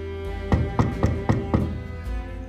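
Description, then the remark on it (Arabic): Five evenly spaced knocks on a green wooden door, fairly loud, each a dull thud with a short resonant ring, with a softer thump at the end and no voices. “إذا أمسك بيدي ولنعد لعدة سنوات للوراء أنا وأنت نقف أمام باب خشبي أخضر نطرق عليه”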